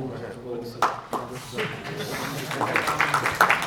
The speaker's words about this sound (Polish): On liczy teraz, ile osób bije brawo.